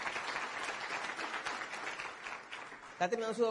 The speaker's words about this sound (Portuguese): Minha mãe agora mesmo está terminando um doutorado, ela vai fazer 80 anos. Obrigado, um aplauso para ela.